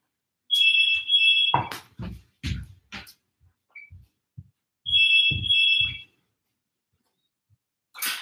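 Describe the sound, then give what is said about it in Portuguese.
A doorbell rings twice during a live program, each a steady, high electronic buzz lasting about a second, separated by a few dull thumps and clicks, with no one talking. “Gente, programa ao vivo é assim: toca a campainha, tem que atender o interfone, né?”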